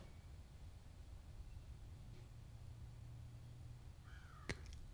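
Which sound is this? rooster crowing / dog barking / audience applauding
rooster crowing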